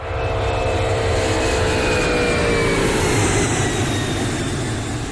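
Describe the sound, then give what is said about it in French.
A loud, steady jet roar fills the whole recording as a Concorde, a supersonic airliner built by France and Britain together, passes overhead, with a high whining engine tone slowly falling in pitch over a deep rumble. “Un avion super rapide, super supersonique, issu d'une collaboration franco-anglaise.”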